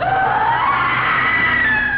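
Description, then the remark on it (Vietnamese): Eerie, overlapping wailing and screaming voices of ghostly souls rise and drift in pitch, loud and unbroken for the whole moment, crying out in panic inside a cave after a loud explosion. “Hai lá bùa kia tạo ra một tiếng nổ lớn Nhưng do ở trong động cho nên tiếng vàn của nó rất lớn đã làm cho đá và các âm hồn khác phải hoảng loạn kêu gào thảm thiết”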